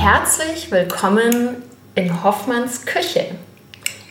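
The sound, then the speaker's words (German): A fork clinks against a glass jar as pickles are taken out of it, a few light, scattered metallic taps heard faintly in the background beneath a person speaking. “Man hört ihn schon im Hintergrund mit der Gabel die Pickles aus dem Glas klimpern”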